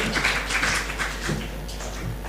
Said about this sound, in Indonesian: Jadi intinya itu lima topik ini kita kasih tepuk tangan buat pembicara dan narasumber kita sore hari ini.